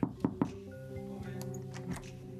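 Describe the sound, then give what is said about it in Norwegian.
A door into a simple small office, up a stairway in a building near Oslo city hall, opens with three quick thunks and clunks, then gives way to a steady indoor hum with a few soft knocks and rustles; nobody speaks. “Og inn ei dør til et enkelt lite kontor.”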